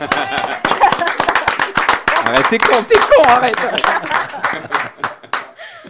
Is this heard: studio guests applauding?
yes